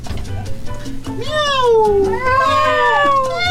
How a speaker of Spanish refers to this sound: ¡Ay, mi gatito!